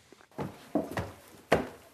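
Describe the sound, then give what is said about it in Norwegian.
Four footsteps climbing the stairs at Hund gård, the oldest farm in Gjøvik, Oppland, uneven in timing, each a dull, scuffing thud, with the last one landing hardest. No one speaks. “Vi går opp trappene på Hund gård på Gjøvik.”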